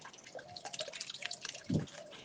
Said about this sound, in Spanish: Altos chopos cabeceaban en los bordes, reflejando sus sombras en el cristal líquido del río. Entre las juncias y espadañas de la ribera se enredaba un monótono y lillo lastimero, el quejido del agua.